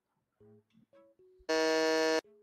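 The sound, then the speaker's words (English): A loud, harsh electronic quiz game buzzer, pressed by a player before the timer ran out, blares once for nearly a second, preceded by a few short tonal beeps and followed by a softer steady tone, with no talking. “I buzzed.”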